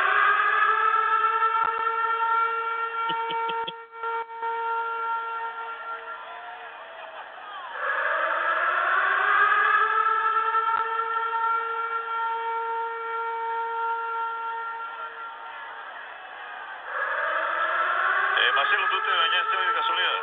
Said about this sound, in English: It, it's not a new theme. It, it's his old theme, but it has an air raid siren over it.